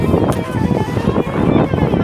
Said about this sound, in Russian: очень ветрено